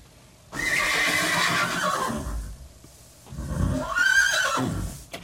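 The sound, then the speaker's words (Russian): A horse neighs loudly twice, each whinny a shrill, quavering call that rises and falls, with a short pause between them and no talking. “Вот сегодня едешь на работу, будешь пахать, как кто? Как? Как лошадь.”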